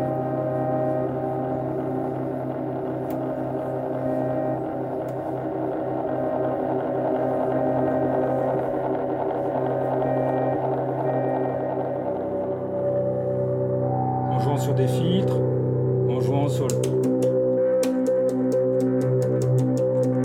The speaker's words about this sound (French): Et les chambres d'écho à bande, si on les met en saturation, on va dans quelque chose qui est une espèce de boucle infinie, en fait. Et ça donne un truc comme ça.